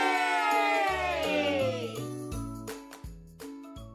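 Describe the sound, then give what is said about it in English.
A short jingle introducing the Cutie's Corner segment, with bright, tinkling high notes over a stepping bass line, shifting through several quick chord changes at a steady, moderate loudness with no talking. “Welcome to Cutie's Corner. We haven't heard this jingle in a while.”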